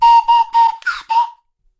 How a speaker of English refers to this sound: What's your favorite slide whistle sound? That one. That's that's a classic zany right, sound. Yeah, that's one of the top wacky sounds of all time.